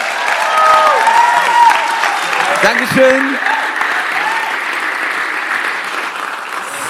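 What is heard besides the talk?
audience applause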